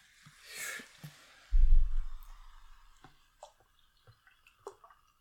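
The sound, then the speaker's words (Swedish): A drink is poured into a glass, a brief fizzy splash and a low gurgling thud, followed by scattered soft drips and small clicks, with no talking. “Häller upp lite mer kol åt dig.”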